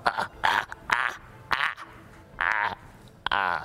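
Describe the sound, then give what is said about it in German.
A voice imitates a deep, distorted laugh in a series of rough, croaking bursts, six or so pulses spread across a few seconds, moderately loud. “und dann ihr euch einzeln herunter abseilt, hört ihr ein tiefes, verzerrtes Lachen.”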